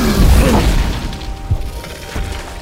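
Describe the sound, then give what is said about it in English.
A wyvern slams down onto the roof of Teddy Boy's Customs: a heavy, booming slam with a deep rumble, followed by rattling, clattering debris and a couple of smaller thuds as it settles. No voices. “And it slams down hard on the roof.”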